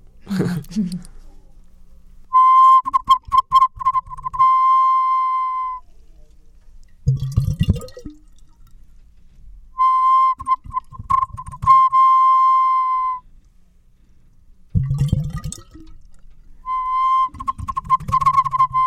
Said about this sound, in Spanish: Bueno, son dos vasijas silbadoras. Eh, una, la primera que voy a hacer sonar, tiene tres cuencos, lo que hace que la presión del agua pasando por los cuencos empuje el aire y hace que el pájaro gorgoje.